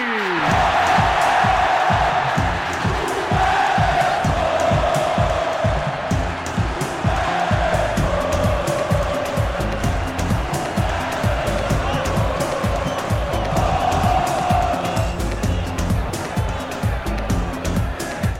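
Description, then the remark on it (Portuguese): A fan jingle for the Botafogo football club of Paraíba plays over a loud, dense crowd cheering and chanting, with a steady driving beat pulsing underneath for the whole stretch. “Bota aí aquela viedinha do torcedor.”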